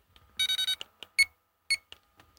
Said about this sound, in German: Das ist ein äh, einen Scanner, der einen Barcode abscannen